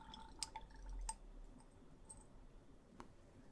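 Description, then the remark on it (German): A few soft drips of liquid from a dropper land on hair one after another with small wet clicks, spaced irregularly against a quiet background, with no one speaking. “ein paar Tropfen auf deine Haare und schon solltest du gleich am gesamten Körper ein unfassbar gutes Gefühl spüren.”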